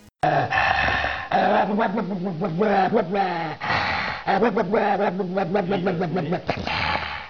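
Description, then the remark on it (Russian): A dog growls and barks in two long, loud bursts with a short pause between them. Its rough, wavering snarls run almost continuously, with no one speaking. “Но самым преданным другом человека всегда была собака.”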